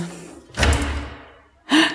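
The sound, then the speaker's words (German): A key turns in the lock of an old villa's door with a heavy metallic clunk that rings out briefly, then a second rattling knock of the mechanism follows a moment later. “Oh, glaubst du, der Schlüssel passt?”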